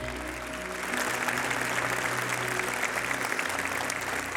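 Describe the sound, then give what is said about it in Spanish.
A church audience applauds for the Lord after a baptism, steadily for several seconds, a dense wash of many hands clapping that swells slightly and holds, with a faint low musical hum underneath. “¿Qué tal si le damos un aplauso, Señor, una vez más?”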